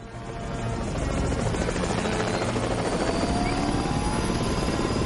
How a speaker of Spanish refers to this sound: Los rotores de los helicópteros se ponen en marcha y las escuadrillas levantan el vuelo.